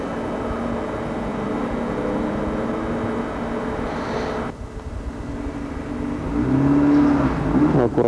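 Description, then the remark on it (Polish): A car drives past outdoors, recorded on a Walkman dictaphone with a mono microphone. Its steady low engine rumble dips briefly before swelling again as the rising engine tone grows loud near the end. No one speaks. “samochód jedzie.”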